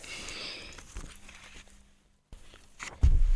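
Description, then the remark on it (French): Crisp rustling of leaves, irregular and scratchy like steps or hands moving through them, falling silent briefly before a louder, heavier crunch at the end. “Euh, on entend des feuilles.”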